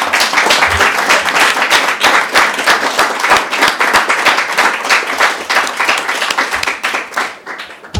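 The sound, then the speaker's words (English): An audience at an FDA-sponsored panel event applauds steadily for several seconds to thank the panel, a dense, loud wash of many hands clapping at once that tapers slightly toward the end, with no voices heard over it. “Thank you to the FDA for sponsoring, and I will take your round of applause as having already thanked the panel.”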